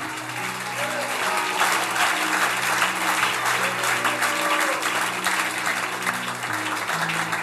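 An audience applauds loudly and steadily for the full stretch, a dense wash of clapping that never lets up, with sustained low keyboard chords held underneath.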